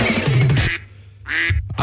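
Two loud duck quacks, each a harsh raspy burst lasting well under a second, separated by a short pause. No one speaks.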